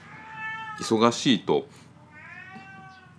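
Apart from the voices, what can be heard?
cat meowing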